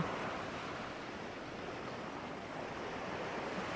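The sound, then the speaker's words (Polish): Steady ocean surf washing continuously, a broad, even roar of waves with no distinct breaks, moderately quiet, with no voices present. “To jest woda, która zabierze ze sobą wszystko, cokolwiek chcesz jej oddać.”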